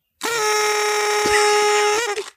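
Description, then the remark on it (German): A toy party horn blown in one long, loud, buzzy blast lasting nearly two seconds, with a steady reedy pitch that wavers slightly before cutting off. “Ich würde auch so, sagen, du solltest Abschluss nochmal in die Tröte hm? pusten.”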